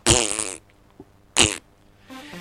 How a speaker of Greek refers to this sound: Τα αέρια οπ. Συμβαίνουν και αυτά.